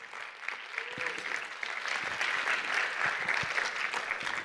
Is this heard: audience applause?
yes